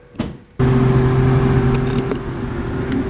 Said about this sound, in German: So, wir sind hier weiterhin auf unserer Probefahrt. Ähm, und jetzt hast du gerade mal hier mal richtig Vollgas gegeben, beziehungsweise geben lassen.